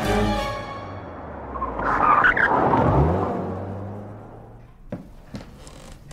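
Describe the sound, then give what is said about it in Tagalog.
A car engine revs hard and tires screech loudly as the car speeds away back toward a beach resort, the roar peaking midway then fading, followed by a few faint knocks. “Mabilis niyang pinaharurot ang kotse pabalik sa beach resort.”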